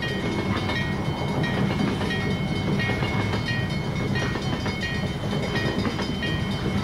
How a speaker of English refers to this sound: Yeah, there's some really dramatic moments in this with the train that just would not stop. yeah.